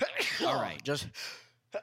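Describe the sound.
A loud sneeze bursts out, with a sharp intake and a breathy noisy release, amid brief spoken words from the person.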